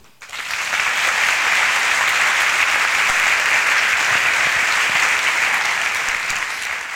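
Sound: audience applause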